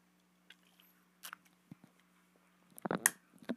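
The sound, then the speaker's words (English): Someone drinking water: sporadic wet mouth clicks and sips, then a louder cluster of gulping swallows near the end, over a faint steady hum with no talking. “Sorry, I'm readjusting again, and I need a little bit of water, so excuse me for a sec.”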